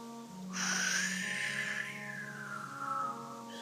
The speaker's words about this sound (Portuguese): Olha o som do vento.